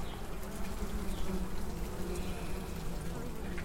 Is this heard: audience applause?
no